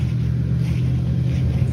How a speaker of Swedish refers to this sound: Saken är den att man kan ju sitta en förmiddag och så rullar det in en bil på campingen.